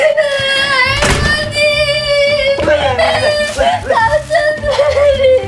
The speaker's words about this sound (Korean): 누가 울어?